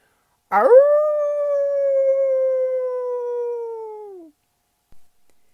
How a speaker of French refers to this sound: lance un grand aboiement plaintif, signe que lui aussi a de la peine de perdre ses fidèles amis.